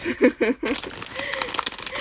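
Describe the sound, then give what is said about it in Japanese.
A brief burst of laughter gives way to steady crinkling and scraping of a plastic bag of edamame chips from 7-Eleven being sliced open with a utility knife, with faint vocal murmurs underneath. “仕方ないからカッターで開ける。”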